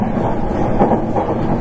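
A Nankai 8300 series airport express train running from Namba to Rinku Town rolls along steadily, its wheels giving a low, continuous rumble with faint rhythmic clatter over the rails, loud and unbroken with no voices.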